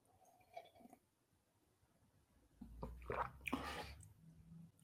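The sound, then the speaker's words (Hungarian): Quiet slurping and wet mouth sounds of someone sipping a drink, a short cluster of liquid gulps after a near-silent pause, with a faint brief sound near the start. “Még van három kortyám.”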